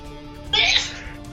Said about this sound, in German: Gesundheit. Da ich das ja jetzt gehört habe, ähm, genau, Gesundheit